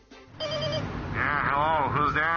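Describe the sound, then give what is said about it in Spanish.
An intercom buzzer at Wall Street gives one short, steady electronic ring with a bright, buzzy tone, then a woman begins speaking in a rising and falling voice, asking for the premium to come down. “Una señora llama al interfono de Wall Street pidiendo que baje la prima.”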